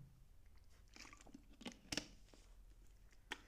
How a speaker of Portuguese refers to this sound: Mas pronto, deixem lá aqui dar um, um golinho na água.